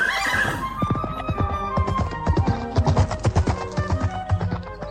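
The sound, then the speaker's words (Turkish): A horse whinnies loudly at the start, followed by a steady run of rhythmic clip-clopping hooves that continues to the end with no one speaking. “Bunu duyan at birden ayağa fırlamış.”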